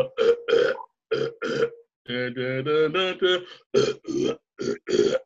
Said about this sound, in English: And funny enough, uh, he also has another recurring skit on the show the great Racker, the great Wakko Wakkorotti, where he does like uh, opera singing but burping.